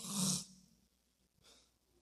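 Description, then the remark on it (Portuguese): A man imitates his wife snoring as soon as they get into the car: one loud, rasping snore with a low rattle, then after a pause a softer, breathy exhale. No words are spoken. “Ô oh, pastor, pô, minha mulher confia em mim, porque é nós entrar no carro e ela.”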